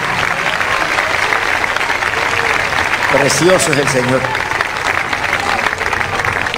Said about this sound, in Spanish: Denle ese aplauso bien grande a Jesucristo.